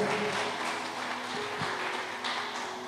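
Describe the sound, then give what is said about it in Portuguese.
An audience at a Christian worship service claps steadily for a few seconds in praise of Jesus, a dense, even wash of applause from many hands, with no voices standing out. “Aplauda Jesus bem forte aí, aleluia.”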